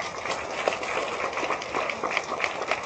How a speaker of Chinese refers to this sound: 来给各位一个掌声。